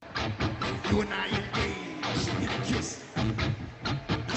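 A live rock band plays a cover song loudly in an arena in Minneapolis in 2018, with heavy drum hits pounding out a steady beat under dense, distorted guitars and a slightly muffled, roomy, echoing sound.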